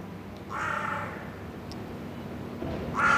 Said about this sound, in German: weiß ich sicher, es handelt sich um Rabenkrähen. Sie sind vollkommen schwarz. Und ich vermute, dass es sich um ein brütendes Paar handelt